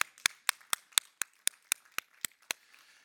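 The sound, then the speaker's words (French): An audience claps in steady unison, sharp crisp claps landing about four times a second for a few seconds, with no talking over them. “on peut applaudir à ça?”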